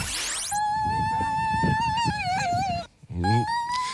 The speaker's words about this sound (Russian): Так э, звучит э, женщина в восторге. Многие будут вот примерно так пищать 8 марта уже в эту среду.